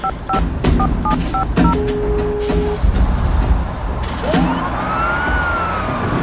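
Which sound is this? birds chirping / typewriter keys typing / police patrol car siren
police patrol car siren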